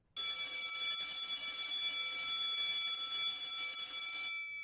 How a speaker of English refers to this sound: Saved by the bell.